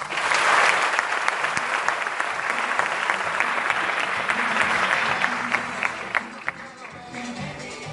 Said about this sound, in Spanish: Por eso quiero que te des un fuerte aplauso.